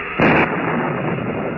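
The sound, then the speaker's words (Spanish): A loud crack of thunder from an approaching heavy storm at night bursts out, then gives way to a steady, heavy rumble that keeps rolling without fading. No voices are heard. “Se avecina una fuerte tormenta. Los fuertes y relámpagos rompen el silencio de la noche.”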